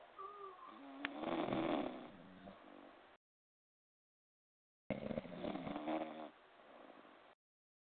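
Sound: snoring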